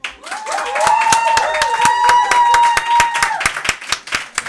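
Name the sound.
audience clapping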